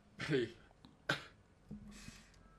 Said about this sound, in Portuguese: Foi, foi. Espirrar aqui, mas consegui conter. Tá Desculpa.